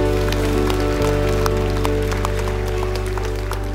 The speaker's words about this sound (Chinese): 我们将掌声献给我们的神。